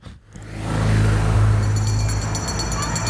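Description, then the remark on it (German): A car engine starts up and revs, its low rumble rising and settling into a steady drone as the vehicle pulls away, loud throughout. “Gut, setzen wir uns ins Auto oder? Ja, lass mal fahren.”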